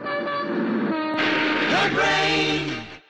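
A loud train rumbles past as a man throws himself under it, while its horn blares with sustained, pitch-bending tones, the noise swelling and then cutting off abruptly at the end.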